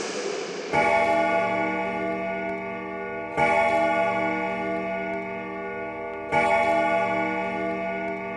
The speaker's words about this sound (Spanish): La campana marcó las doce.